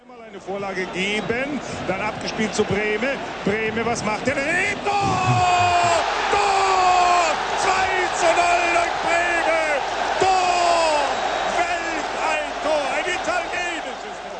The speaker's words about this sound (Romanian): V-ați dat seama cu siguranță că e vorba de un meci de fotbal. Știți și unde se desfășoară acest meci, pentru că ați auzit cuvântul gol și v-ați dat seama că explozia de bucurie este efectul golului înscris.